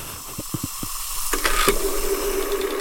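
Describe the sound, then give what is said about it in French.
An aspirin tablet fizzing in a glass of water: a few soft knocks, then a sudden steady effervescent hiss that carries on fairly loud, with no voices. “Le son d'une grosse erreur, euh, c'est un son d'aspirine dans un verre d'eau, non”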